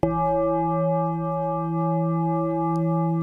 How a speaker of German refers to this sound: Und so klingt er, der Gong, wenn die Maschinen laufen und das Parlament alle 14 Tage Donnerstag sich versammelt.